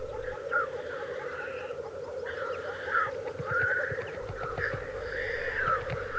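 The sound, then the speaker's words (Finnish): A steady, rolling bubbling chorus of lekking black grouse fills the background, while higher nasal calls from females rise over it in short repeated bursts. “Jos tarkkaavaisesti kuuntelee, niin puputuksen seasta voi erottaa naaraille kuuluvan äänen.”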